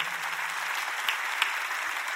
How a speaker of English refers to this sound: We got to do this quick, but clap your hands.